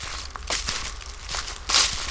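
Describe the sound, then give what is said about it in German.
Footsteps crunching over a forest floor in the Vogelsberg, between Lauterbach and Schlitz in Hesse, Germany, on a pleasant day: a handful of brisk, crackly steps in an uneven rhythm, the last one louder and sharper, with a low steady rumble beneath. “An so einem angenehmen Tag wie heute in den Wald gehen zu können, wie ich gerade, zwischen Lauterbach und Schlitz im Vogelsberg.”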